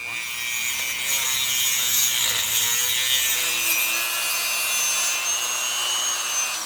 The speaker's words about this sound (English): I mean, I got to interview scientists who were doing chemical analysis of ancient seal bones. They cut out slices with a saw.